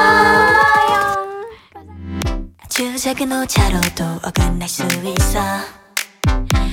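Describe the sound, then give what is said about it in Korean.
A pop song plays on the radio at full, steady volume, with melodic sustained tones over punchy rhythmic beats and a brief dip in the music partway through. “노래를 한 곡 더 들어볼까 합니다.”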